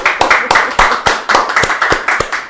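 Applause from a small group, with loud, crisp hand claps in a steady, slightly uneven rhythm, roughly four per second, and no voices over it.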